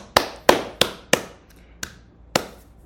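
Six sharp, bright hand claps in an uneven rhythm, each a crisp snap that dies away quickly, with no voices, more a lone clapper than a crowd. The clapping greets the introduction of a co-host at the start of a Greek show.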